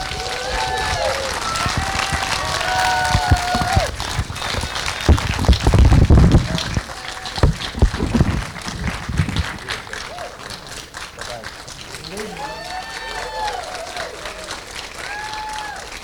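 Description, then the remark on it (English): A crowd at a show applauds steadily for Keir Dullea and Gary Lockwood for about sixteen seconds, dense clapping swelling in the middle, with scattered cheers and voices calling out over the noise. “So let's hear it one more time for Keir Dullea and Gary Lockwood.”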